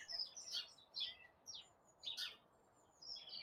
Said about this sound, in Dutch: het is echt het gevoel van lente, hè? Dat het ochtends eh, eerder licht wordt. Dat de vogeltjes veel vroeger beginnen te fluiten.